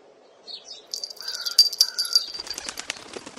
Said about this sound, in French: Mais avec la clochette, ça marche pas, donc le volatile, il s'envole.